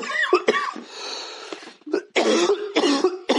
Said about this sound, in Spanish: Joder, … está tosiendo.